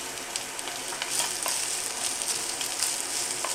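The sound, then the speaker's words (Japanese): Frozen fried rice sizzles steadily as it is stir-fried in a Chinese wok, a dense crackling hiss with faint scraping stir sounds, continuous with no talking. “これフライパンでやる方法も書いてあるけどあの油敷かないでやれって書いてあるけど中華鍋でやる場合は油敷いた方がいいですよっていうか油敷かないと全部多分くっつくよで結構まあ強めの火でガンガン炙ってですね”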